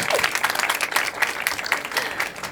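An audience breaks into steady applause, many hands clapping in a dense, crackling patter that holds at an even, moderate loudness for a couple of seconds without letting up.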